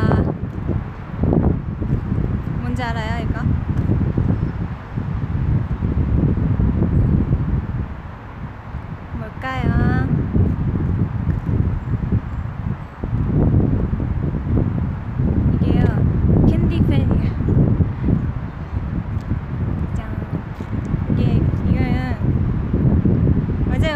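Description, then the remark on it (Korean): A small electric fan, an item coming out at an encore concert this weekend, blows air, making a steady, rumbling whoosh of buffeting wind that runs throughout, with people talking over it. “맞아요 선풍기 오 맞아요 맞아요 지금 지금 바람이 불고 있지만 이거 시작 윙 이쁘죠 딱 여름에 좋네”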